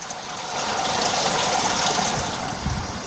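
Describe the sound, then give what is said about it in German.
Swimming pool water splashing and churning in a steady, continuous wash of hissy noise for about three seconds, fairly loud and even throughout, with no voices. “Richtig, der Pool.”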